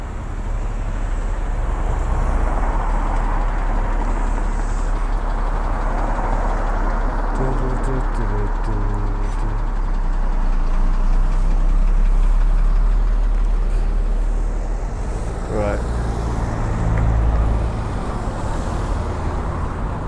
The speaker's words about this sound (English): this bit might need anything out because it's just me stood at a car crossing waiting to cross the road.